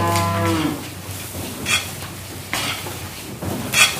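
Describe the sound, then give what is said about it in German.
A cow lets out a single low moo at the start, followed by intermittent rustling and crunching bursts as cows at a feeding rack stretch their necks and push their noses through home-made hay, with no one talking. “Die Kühe recken die Hälse und fahren mit ihren Nasen durch die duftenden Halme.”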